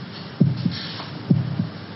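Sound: heart beating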